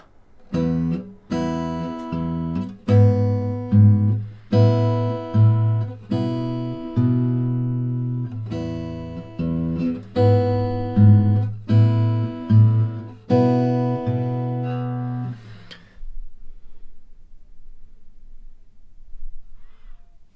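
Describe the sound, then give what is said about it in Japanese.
Fingerstyle acoustic guitar played alone, a steady bass line played with the thumb under melody notes plucked with the index and middle fingers, fairly loud, stopping after about fifteen seconds and ringing out into quiet. “ベース音と親指と人差し指薬指じゃない人差し指と中指ですねこれで弾いてます最初から。”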